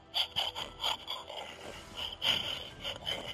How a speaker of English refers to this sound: so, I found this nice little thing. It's from Archie McPhee, and they're out of Seattle, Washington, and it is an emergency Bigfoot sounder. So here's the how. Hopefully that's loud enough. Oh, I tried against the mic. Okay. The snort.